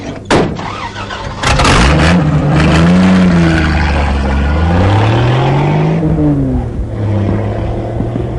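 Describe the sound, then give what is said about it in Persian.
A car engine revs loudly, its pitch climbing and dipping in repeated waves as it accelerates, with a sharp burst at the start and no voices. “برادر ترمز بریدی که بریدی دیگه چرا ما رو تو در سر میندازی”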